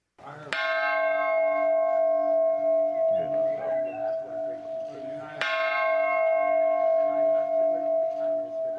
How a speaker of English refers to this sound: became the first U.S. president to ring the peace bell, which commemorates the Good Friday Agreement. Look at him go.